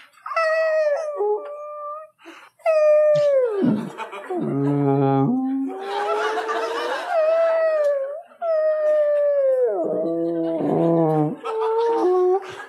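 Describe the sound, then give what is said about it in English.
A person imitates whale calls with long, wavering moans that swoop up and down in pitch, some dropping into a low creaky groan, loud with brief pauses between calls. “He's out on a ship, he's got a pencil, and he deciphers the whale noises as he hears them. You know, he'll hear like,”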